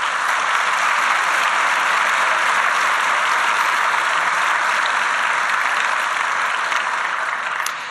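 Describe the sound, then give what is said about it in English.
A crowd at the Wexner Center applauds the event's supporters steadily for about eight seconds. A dense, loud wash of many hands clapping at once continues with no pauses, tapering only slightly at the very end. “Really, we could not do this without the support of all these people, so please a round of applause for our supporters.”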